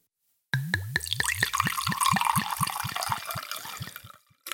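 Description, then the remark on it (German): Sparkling water glugs from a bottle into a glass in quick rhythmic pulses, the pitch rising as it fills, with a faint fizz underneath, then trailing off into silence. “Und jetzt noch, jetzt noch den Sprudel.”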